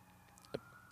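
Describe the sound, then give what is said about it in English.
A faint emergency siren wails steadily in the background, a thin sustained tone, with one brief knock partway through. “apparently the if you can hear a, a, a siren in the background, my apologies.”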